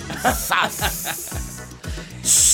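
A sharp, loud burst of hissing steam erupts at the end, following short airy hisses layered over steady, rhythmic low thumps about twice a second.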